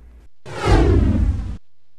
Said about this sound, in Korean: 말을 마친 오공이 휙 하는 소리와 함께 어디론가 사라져 버리니 군신들은 모두 놀라지 않는 사람이 없었습니다.